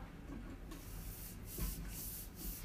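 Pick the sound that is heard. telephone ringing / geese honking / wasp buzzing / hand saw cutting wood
hand saw cutting wood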